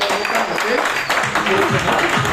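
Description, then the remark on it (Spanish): A crowd applauds for being present, in a dense, steady wash of clapping that holds loud for the whole moment, with voices and shouts rising and falling over it. “un fuerte aplauso por estar acá.”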